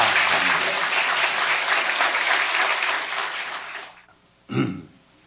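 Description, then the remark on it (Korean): A church audience gives sustained applause to God, a dense wash of many hands clapping for about four seconds, then fading out, followed by a short throat clearing. “우리 하나님께 큰 박수 올려 돌리시죠.”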